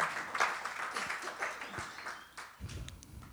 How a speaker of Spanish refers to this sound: Damos un fuerte aplauso y bienvenida.